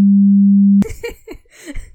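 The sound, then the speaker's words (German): A steady, loud, low-pitched censor beep, bleeping out words not meant for the public, holds for almost a second and cuts off abruptly, after which people resume talking. “ich piepe alles raus, was irgendwie nicht in die Öffentlichkeit gehört.”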